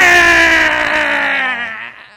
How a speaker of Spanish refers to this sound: By the way, ese, ese salió like otra vez big como... baby salió como el tercer sonido eh, el más annoying para un carajito llorando verdad un carajito llorando número tres